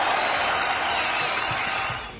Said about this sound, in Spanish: Un aplauso a la muchacha y su, y su respuesta.